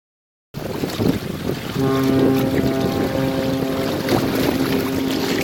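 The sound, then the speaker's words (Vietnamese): The Vietnamese Navy submarine 185 Khánh Hòa sounds its horn in one long, sustained blast with a rich, steady harmonic tone, saluting the naval port as it docks, starting a second or two in and holding to the end over gusty outdoor wind noise. “Sau những hồi còi tàu ngân vang chào quân cảng, tàu ngầm 185 mang tên Khánh Hòa cập cảng kết thúc chuyến thực hiện nhiệm vụ trong lòng đại dương.”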